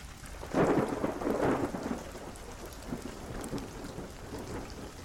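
A thunderstorm: a deep rumble of thunder swells early and rolls on for a couple of seconds, over a steady hiss of rain pattering on a surface. No voices.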